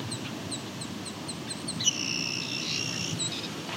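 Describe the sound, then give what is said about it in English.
An eastern meadowlark sings a clear, slurred whistle partway through, over a steady rhythmic chirping of insects and a low rumble of open-field background noise. “The BUE kind of thing was an Eastern Meadowlark.”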